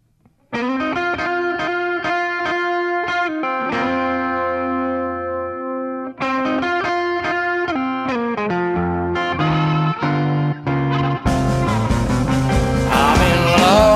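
A blues band kicks off a song with loud, overdriven electric guitar: ringing chords and held notes that drop out briefly, then return fuller, building into a busier, brighter full-band passage.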